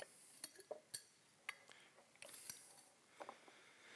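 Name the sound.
drinking glasses clinking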